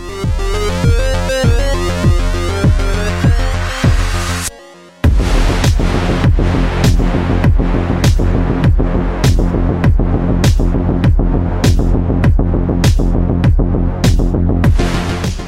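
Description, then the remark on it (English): A loud synthwave track where side-chain compression from a steady kick drum makes a thick synth pad duck and swell on every beat, with a brief near-silent break before the pumping groove resumes. “when the kick stamps, there's like a delayed compression on the pad, so the pad fades away for an instant and comes back”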